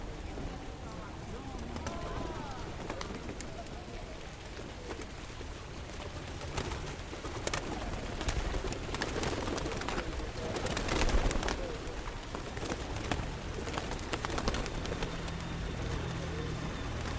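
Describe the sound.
Pigeons coo softly and repeatedly against a busy outdoor background, with faint voices and general bustle around them.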